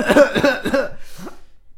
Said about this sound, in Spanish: y luego de recuperar la respiración y toser un rato, se les ocurrió cómo resolver esto.